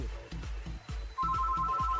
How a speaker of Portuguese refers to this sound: Ai, meu Deus, atende logo, assalariado de uma figa! Atende esse telefone!